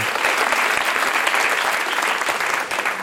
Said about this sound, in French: on les accueille naturellement avec chaleur, avec plaisir avec applaudissements.